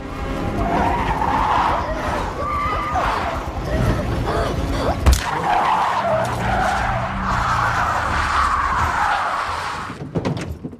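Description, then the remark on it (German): A car swerves to avoid a dead deer lying on the road, with loud, drawn-out tires skidding in a wavering high squeal, broken midway by a sharp crashing impact of the accident, then more screeching skids before a final clatter. “er muss dann einem auf der Straße liegenden toten Reh ausweichen. Ist vielleicht auch kein Zufall, dass da ein totes Reh lag, aber gut.”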